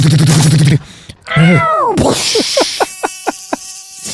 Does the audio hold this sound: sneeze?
no